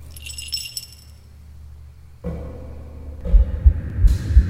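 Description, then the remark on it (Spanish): A bright metallic jingle, like small bells shaken, rings out from inside a niche after a torch is dropped in, lasting about a second, then fades into a low rumble and rough, swelling noise. “Dejé caer una antorcha en el interior del nicho. Solo escuché un cascabeleo.”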